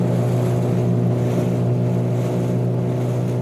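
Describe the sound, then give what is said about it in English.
A motorboat engine drones steadily as the boat motors through a sea of floating brash ice, small broken bits of ice, with water wash and a constant low hum throughout and no voices. “We headed out and um, motored through this brash ice”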